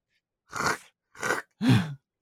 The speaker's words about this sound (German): Jetzt ein Kreuz und dann hört man nur so den Filz.